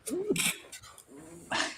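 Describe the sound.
Two sneezes, each a short voiced rising "ah" breaking into a loud, hissy burst, the second coming about a second after the first.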